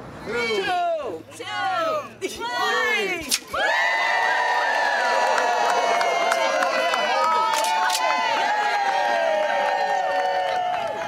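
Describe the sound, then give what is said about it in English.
A crowd of about 150 people cheers and shouts at a ribbon cutting at the historic Capitol Stairs in Vallejo on a crisp Friday evening, many voices overlapping in rising and falling whoops, then settling into a loud, continuous roar of excited voices that runs to the end. “About 150 of Vallejo's proudest were on hand for the ribbon cutting at the town's historic Capitol Stairs.”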